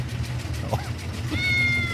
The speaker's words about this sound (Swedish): Det ligger i bakgrunden också. Men det där mjauandet också. Det är otroligt!